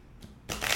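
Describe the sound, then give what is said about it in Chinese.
Tarot cards being shuffled for a tarot reading: a short papery flick, then a dense, steady rustling riffle that grows louder and continues to the end, with no voices. “好，洗牌中。好。啊，塔罗牌，请给第一组。”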